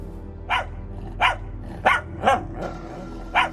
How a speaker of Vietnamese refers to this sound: Là con chó ở căn hộ 302. Thấy cô ấy không đến đón nên người ta mang đến tận nơi. Là con chó suốt ngày sủa nhặng lên đây à?